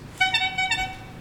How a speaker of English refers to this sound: Oh shit! that was my phone.